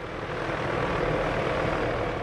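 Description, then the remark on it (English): A helicopter drones steadily in the middle of the night while searching back and forth, a dense, continuous rotor-and-engine roar holding at a constant loudness throughout, with no voices. “In the middle of the night, a helicopter could be heard searching back and forth to the south of us.”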